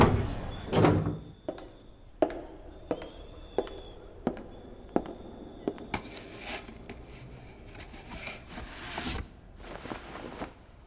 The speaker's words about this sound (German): Die Nisho-Büroräume sind wie leer gefegt, aber Knight hat einen Schlüssel. Also macht er sich allein auf zum Unternehmenssitz und öffnet die Eingangstür.